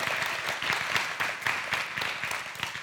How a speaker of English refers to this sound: And can we give them all one more big round of applause? Just fantastic.